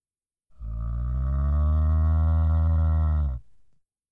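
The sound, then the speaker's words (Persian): A person imitates a cow's moo with one long, loud, low drawn-out call lasting about three seconds, steady, with no other sound around it. “بلد این صدای گاو در بیارین؟”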